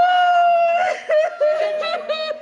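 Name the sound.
woman crying and wailing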